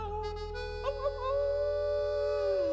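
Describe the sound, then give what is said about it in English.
A single long, wolf-like howl that swoops upward in pitch and then holds a steady, drawn-out note, loud with no talking over it. “We're gonna hoot and holler and howl at the moon.”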